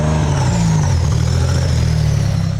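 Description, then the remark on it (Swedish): A Renault Alpine 310 rally car, driven by Jonny Nilsson competing for KAK, drones loudly and steadily, a deep harmonic rumble with a faint higher whine, holding an even pitch throughout with no voices over it. “Eh, riktigt häftig eh, Renault Alpin 310.”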